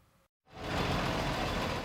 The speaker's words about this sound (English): When the school bus rolls up